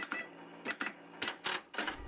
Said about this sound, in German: Für die erste Folge dieses famosen Formates ziehen wir die Station jetzt und ich werfe dann einfach mal unseren Zufallsgenerator an.